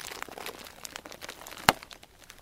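Bubble wrap crinkling and crackling with scattered small pops, then one sharp, loud pop stands out before the soft rustling continues. No voices.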